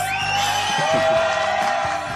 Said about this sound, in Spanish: Aplausos.